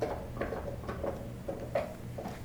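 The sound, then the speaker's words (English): A dog gnaws on a bone in a living room, making repeated scraping crunches and clicks every half second or so over a low steady hum, fairly quiet and with no voices. “I have a dog who is just absolutely destroying a fucking bone right now.”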